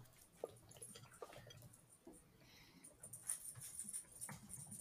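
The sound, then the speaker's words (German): A dog squeaks a toy in a few quick, high-pitched bursts, fairly faint, with soft rustling and movement around it and no talking. “Sorry, der Hund. Wie er quietschte genau.”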